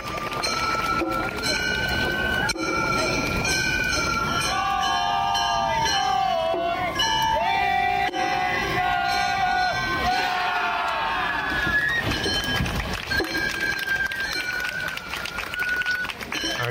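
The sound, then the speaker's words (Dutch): A Gion Festival street procession in Kyoto: high, wavering piped melody lines ride over a steady, dense crowd bustle with many voices talking, the festival music continuing throughout. “Dit is het eh, Gion Festival in Kyoto.”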